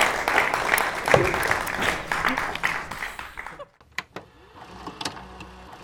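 A crowd applauds loudly for several seconds, the dense clapping then thinning out to a few scattered claps near the end.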